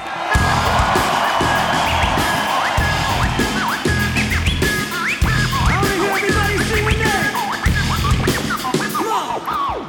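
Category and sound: crowd, crowd cheering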